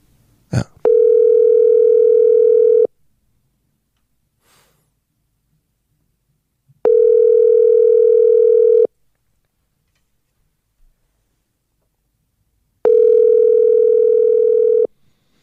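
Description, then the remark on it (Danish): An outgoing WhatsApp call, placed to reach a person in Afghanistan again after the connection dropped, rings back three times: steady, fairly loud two-second tones separated by roughly four seconds of silence, with a faint click just before the first one. “Vi prøver lige at ringe ham op igen.”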